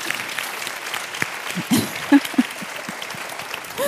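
Steady audience applause greets a guest being introduced on a panel and fills the whole stretch. It is a dense wash of clapping hands at an even level, with a few brief voiced sounds poking through near the middle and end.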